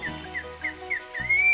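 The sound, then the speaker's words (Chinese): A thrush sings at first light in a forest, a cheerful run of bright, whistled notes, short rising phrases repeated about three times a second, ending in a longer sustained whistle over a soft, low background hum. “画眉唱起了欢快的歌”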